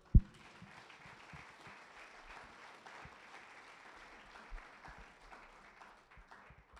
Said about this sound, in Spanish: Denle un aplauso a Dios.